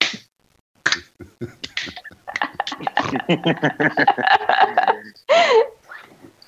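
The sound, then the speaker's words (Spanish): Quick hand claps in an uneven, slightly rushed rhythm, imitating front-row applause that tries to keep time but fails, growing denser and faster as they go, with a voice briefly sounding over them near the end. “Como, ¿sabes de esta gente que hace palmas así?”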